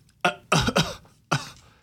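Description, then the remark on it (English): Someone imitates a dry cough with four short, sharp, rasping bursts, three in quick succession and one after a brief pause. The coughs are fairly loud, with no talking. “But so dry cough would be like,”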